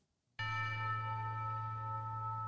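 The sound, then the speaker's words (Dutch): A bell is struck once after a brief silence, its loud, rich tone with a deep hum and bright overtones ringing on steadily without fading much. No one speaks. “Kling. Klok.”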